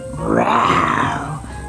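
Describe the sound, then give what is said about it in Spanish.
A person imitates an animal roar, a single sustained growling roar lasting under two seconds, loud and close with a rough, throaty texture. “Entonces gruñeron, ah, aullaron, rugieron,”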